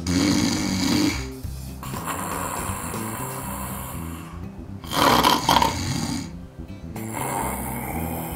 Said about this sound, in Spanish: O hasta los que roncan como lobo viejo.